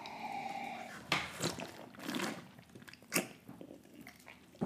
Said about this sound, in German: So, ich trinke jetzt hier. Ich trinke aus Flasche, du Prost. trinkst aus Glas.